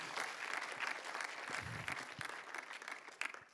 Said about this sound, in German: Das ist ein tausend Dank, dass wir als Gemeinde so gemeinsam vorwärts gehen. Amen. Aber ich glaube, ja, gebt euch und einander einen Applaus.